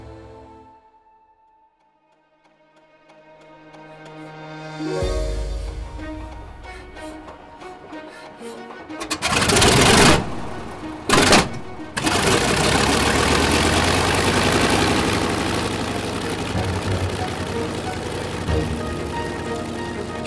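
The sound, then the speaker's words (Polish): An aircraft engine cranks and catches, then quickly revs up into a loud, steady roar with brief surges in power, with no voices. “Silnik szybko wszedł na właściwe obroty.”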